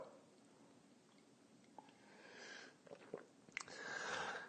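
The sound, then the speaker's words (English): Quiet slurping sips of coffee from a mug, a few airy draws in the latter half with a soft clink, the last one longer and louder; no talking. “It's called the simultaneous sip, and it happens now.”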